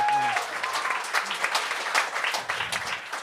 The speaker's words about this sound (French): Fait que ça, c'est ça, c'est fucking nice. On peut l'applaudir pour ça.